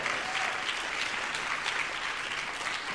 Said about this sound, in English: Can we give a hand clap for our team and what's going on there?